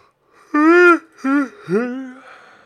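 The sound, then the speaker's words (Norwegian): A big, loud yawn, voiced in three drawn-out groaning pulses, the last one sliding upward in pitch before trailing off. No talking alongside it. “Det er hard gjesping i dag.”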